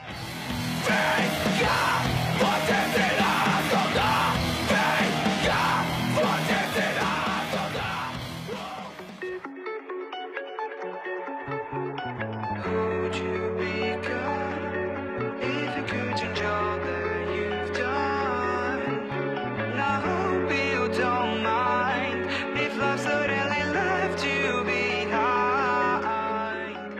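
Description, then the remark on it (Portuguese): A loud song plays for nearly half a minute, opening with a dense, harsh section with shouted vocals, then dropping into a steadier passage driven by heavy bass notes and layered instruments. “e é isso, é, pode, pode ouvir que o negócio é bom e ouve a música lá”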